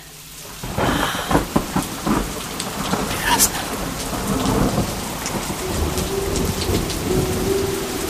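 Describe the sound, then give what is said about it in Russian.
Steady, dense rainfall hisses throughout, with low thunder rumbling beneath it and a few sharper crackles early on. A single voice speaks briefly over the downpour. “Будьте добры, дождь.”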